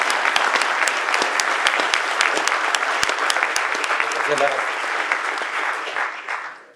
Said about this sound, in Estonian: ja ma tahaksin väga-väga suure sooja aplausiga tervitada lavale